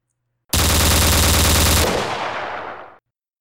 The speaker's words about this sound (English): Gunfire! Good, old fashioned, human, very deadly gunfire. It's much louder in reality than it is in the movies, and it's much scarier to have it aimed at you than it is to see it in a movie.